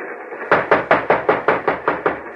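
About nine quick, evenly spaced knocks on the door to a train's mail car, loud, rapping in a steady rhythm over a constant low rumble with no voices.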